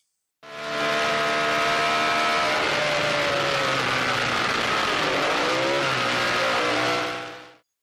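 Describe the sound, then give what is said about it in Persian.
A racing car engine, Jim Clark's 200-horsepower Lotus, roars loudly, its pitch climbing, dipping briefly as if shifting gear, then rising again as it reaches 280 km/h before cutting off; no voices. “سرعت گرفتن یا همون مومنتوم کسب کردن با یه ماشین 200 اسب بخاری کار سختیه اینجاست که استعداد جیم کلارک خودش رو نشون میده اون با رانندگی نرم و روون خودش مومنتوم ماشین رو حفظ میکرد هنر جیم کلارک لوتوس 200 اسب بخاری رو به سرعت 280 کیلومتر بر ساعت میرسون”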